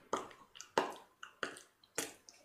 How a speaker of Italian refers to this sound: tipo delle goccioline che cascano all'interno di un'ampolla. Senti del rovesciare, del liquido che si rovescia all'interno di questa ampolla.